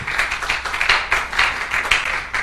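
An audience applauds the Lord steadily, many hands clapping at once in a dense, sustained burst with faint pulses in the rhythm. No one speaks over it.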